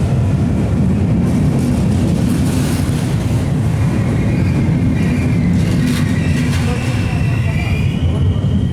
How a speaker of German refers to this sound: Da ist der Zug.